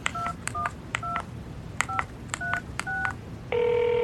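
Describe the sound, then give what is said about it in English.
A quick series of roughly eight telephone keypad dialing tones, short, evenly spaced beeps with no talking, as someone dials a number found down by the phone, followed by a steady, sustained line tone at the end. “It looks like there's a number down there by the phone you can call.”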